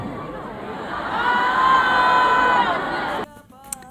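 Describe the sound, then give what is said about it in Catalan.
A crowd applauds and cheers loudly, the clapping and shouts swelling in the middle before cutting off abruptly near the end, leaving a brief quieter moment with faint tones. “Se, se ha venido arriba con los aplausos, los críticos increíbles.”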